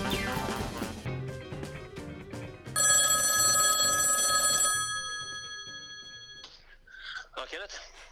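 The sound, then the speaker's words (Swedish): A telephone ring tone of an outgoing call sounds for about two seconds, loud and steady, following a stretch of music; afterward a voice briefly starts speaking. “jag ringer från Eskilstuna-Kurirens fotbollspodcast.”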